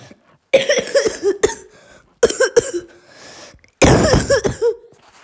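Three harsh bursts of coughing, each a rapid cluster of hacking coughs, loud and close, separated by short pauses with wheezy, rasping breaths between them. No talking.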